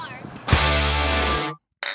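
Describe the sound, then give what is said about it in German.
Glasses clink together once as people sitting together toast, a sharp ring that hangs for about a second before fading, followed by a brief second sound after a short pause. “Prost. Chin Chin.”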